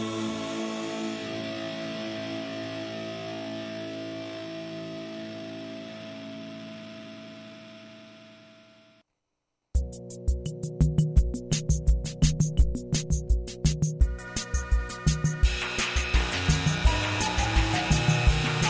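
A punk rock song with a long, buzzing distorted guitar chord that rings out and fades, a brief pause, then loud, fast pounding drums and noisy distorted guitar crash back in.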